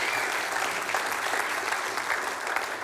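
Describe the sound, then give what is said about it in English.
A crowd claps steadily in a dense, continuous round of applause for a ministry team, many hands blending into a bright, even patter that holds at full strength for the whole stretch without pause. “Just give them a great big round of applause.”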